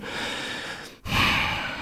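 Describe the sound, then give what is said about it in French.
A deep breath drawn in and let out, with a brief pause in the middle, sounding like someone gathering themselves; no speech is heard. “je prends une grande respiration parce que j'ai beaucoup de misère à traiter cet homme-là avec respect”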